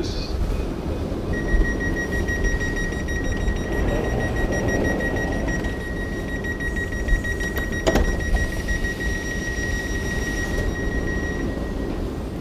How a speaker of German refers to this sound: Jetzt fährt tatsächlich auch der Zug los. Die Schaffner winken.